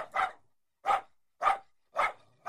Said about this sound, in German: Ein Bellen ertönte im Raum.